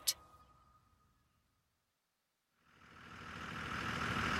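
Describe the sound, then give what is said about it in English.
A sharp click and a fading low hum give way to a short silence, then a bus engine idles at a bus stop, its broad rumbling hiss swelling steadily louder. “I watched him climb off the bus, and my heart began running a marathon inside my chest.”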